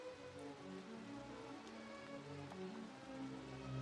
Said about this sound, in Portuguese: Caiu uma chuva tão forte que derrubou parte do monte, bem em cima dos piratas.